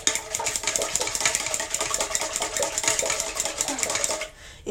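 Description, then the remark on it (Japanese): Eggs being whisked in a bowl: a fast, steady stream of light scraping and clicking strokes, sustained at an even pace for about four seconds before stopping. No voices are heard. “ASMR になるかなこの卵かき混ぜてるわけ。”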